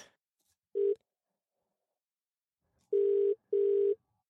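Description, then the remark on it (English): A phone's ringback tone purrs through a handset as a person calls their brother-in-law: one short clipped burst, a pause, then two steady buzzing rings close together, clear and moderately loud with no voices. “Wow, it only rang half the ring.”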